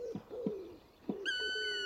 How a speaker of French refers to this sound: Seul un pigeon ramier vient troubler par son chant le martelage de nos deux charpentiers de la forêt.